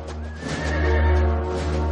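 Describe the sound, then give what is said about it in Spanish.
Horses of a military detachment led by a commander neigh with a long, wavering whinny over a steady rumble of hooves trotting as they ride through a mountainous area along a river, the sound full and continuous throughout, with no voices. “Un destacamento militar mandado por el comandante cabalga por una zona montañosa bordeando un río.”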